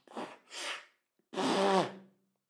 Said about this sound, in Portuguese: Eu preciso assoar o meu nariz. Eu preciso assoar o meu nariz.